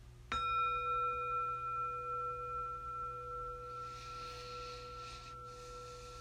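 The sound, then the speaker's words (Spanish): A single meditation bell is struck once to begin a meditation, ringing out with clear, pure overtones that sustain and slowly fade over several seconds, with no talking. “Hacemos una inhalación profunda y con el sonido de la campana empezamos.”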